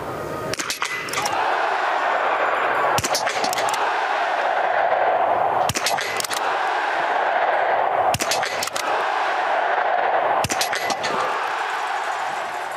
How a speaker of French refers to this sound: Ok, bah c'est parti, jingle